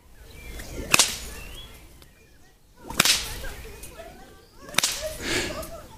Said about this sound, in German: Oben und nach vorne. Also da ist, glaube ich, der Haken, diesen Punkt zu treffen. Zeig mir nochmal. Ja, du musst halt zusehen, dass die Peitsche lang bleibt, ne?